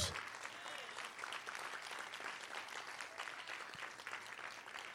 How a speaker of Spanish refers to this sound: Vamos a dar un aplauso fuerte a Jesús.